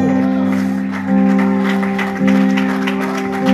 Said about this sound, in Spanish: Dije, ve, dele palmas a Dios, por favor.